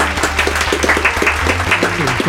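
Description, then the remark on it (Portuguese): A steady burst of applause for the players of the Storms team, many hands clapping in a dense, continuous patter that stays loud for the full couple of seconds, with a low hum underneath. “Palmas, palmas, palmas.”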